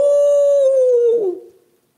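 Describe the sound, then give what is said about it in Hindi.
A single long dog howl, loud and close, holding a steady tone that slowly sags in pitch before breaking and fading out after about a second and a half. “आज मेरा कुत्ता खुश था”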